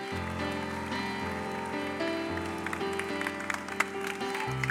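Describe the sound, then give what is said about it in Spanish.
An audience applauds as praise to Jesus, a dense, steady wash of clapping that carries on for the whole stretch, with sustained low musical tones humming underneath. “Amén, amén, Vamos a darle a Jesús nuestra mejor alabanza.”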